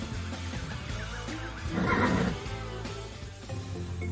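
A horse lets out a single loud whinny that swells in the middle and fades, over a steady background bed with faint hoof clops and no talking.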